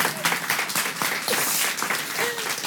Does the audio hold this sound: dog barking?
no